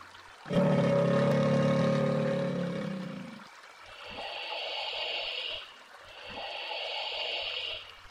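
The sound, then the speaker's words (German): A deep, drawn-out grunting bellow from a large animal, followed by two loud bursts of splashing and snorting in water from hippos and a crocodile, with no talking. “Ach, ich sehe schon, das Krokodil. Und auch die Nilpferde.”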